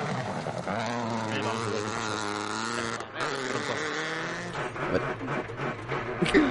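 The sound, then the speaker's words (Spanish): A rally car engine at a rally in Mexico drones loudly, its rich buzzing tone wavering slightly in pitch, briefly dipping midway before picking back up with rougher revs near the end. “escuchar el tran tran.”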